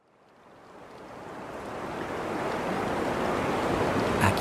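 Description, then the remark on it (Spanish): Rough surf roars steadily at a world-famous surfing beach in Rincón, on the west coast of Puerto Rico, a broad rushing wash that swells up from quiet and holds loud, with gusty wind buffeting underneath. No voices. “pueden escuchar que el mar es mucho más bronco, pueden escuchar el viento porque esta es una playa famosa mundialmente donde se han celebrado competencias mundiales de surfing.”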